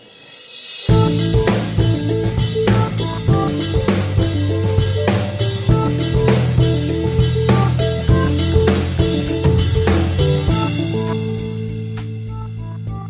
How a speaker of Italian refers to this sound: La sigla e ne parliamo.